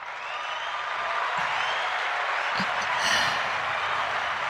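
A burst of canned applause played from a clap button, a dense steady wash of many hands clapping at even loudness for several seconds, with a few cheers rising near the end.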